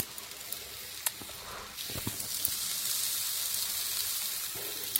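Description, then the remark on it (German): Steady sizzling of food on a hot grill, a broad hiss that swells after the first couple of seconds, with a few sharp pops and crackles, fairly loud, no talking. “So, jetzt feuert er so richtig. Das ist perfekt.”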